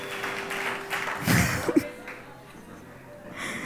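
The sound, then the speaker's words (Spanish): Audience applause in agreement with a decision, a steady wash of many hands clapping at moderate volume, swelling briefly in the middle with a couple of sharper bursts before settling back into a softer patter. “¿Cuántos están de acuerdo conmigo y dan un fuerte aplauso a esta decisión?”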